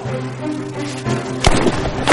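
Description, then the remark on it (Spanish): A single sharp gunshot cracks out partway through, loud, as a suspect fires at a lieutenant in the snow, cutting across a steady droning musical background before fading into a short noisy tail. “El sospechoso dispara al teniente.”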